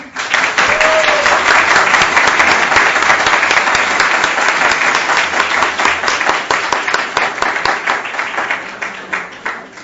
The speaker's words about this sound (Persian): این کلاس ها بازم لطفا تشویقشون کنید